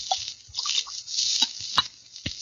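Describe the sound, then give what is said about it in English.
Water pours steadily from a carafe beside a bed into a glass, a bright continuous splash with a few gurgles and clinks, lasting a couple of seconds with no voices. “there is a carafe of water beside the bed.”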